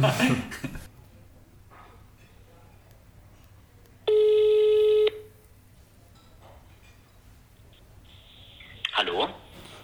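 A single one-second telephone ringback tone, a steady electronic hum heard clearly over quiet background hiss while an outgoing call rings, with brief muffled noises before and after.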